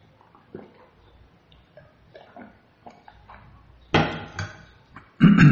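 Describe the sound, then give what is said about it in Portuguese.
Water is poured into a glass and drunk: a few soft clinks and taps, a short splashing pour, then a loud swallowing sound at the end, with no talking. “É, é, eu vou tomar água, depois dessa vou até tomar água.”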